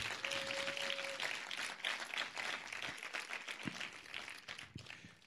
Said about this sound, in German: Ihr seid immer im Dienst. Herzlichen Dank dafür. Gebt denen mal einen Applaus, ja.